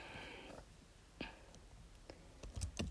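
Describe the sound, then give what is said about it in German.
Faint, irregular clicking of keys on a computer keyboard as someone types a web search, a few scattered taps early on that bunch into a quicker run near the end, with no voices. “Ich google das jetzt. Scheiße ist immer mit der Tastatur verbunden.”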